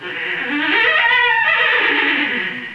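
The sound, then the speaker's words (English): A single loud, drawn-out lion roar, harsh and rasping, swelling and then slowly fading over a few seconds with no talking; a lion in a jungle in Africa. “As he entered the jungle, he came upon a lion”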